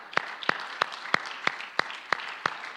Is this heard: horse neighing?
no